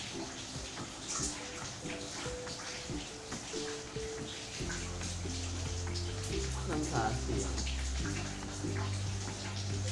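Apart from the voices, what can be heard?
rain falling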